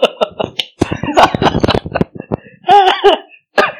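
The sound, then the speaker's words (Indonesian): A loud fit of coughing: a rapid run of harsh, rasping coughs in quick succession, followed by a brief strained vocal sound and one last short cough. “yang yang yang lebih ini dong yang lebih apa sih istilahnya aduh sampai batuk gue”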